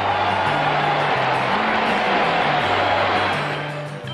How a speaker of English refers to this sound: Interest in horse racing is soaring. Listen to the crowd. Listen.